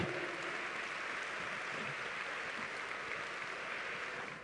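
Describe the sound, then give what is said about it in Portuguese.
An audience applauds the Lord during worship, a dense, steady wash of many hands clapping that holds evenly for several seconds with no voices standing out, easing slightly at the very end. “Aplauda, aplauda mesmo ao Senhor.”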